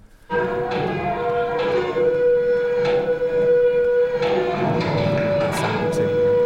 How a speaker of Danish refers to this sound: Og ja, og, og noget, noget kran, øh, som vi optog på Labyrint. Der, der var sådan en stor kran i sving øh, for at bygge et eller andet.